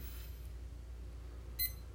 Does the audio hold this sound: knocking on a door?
no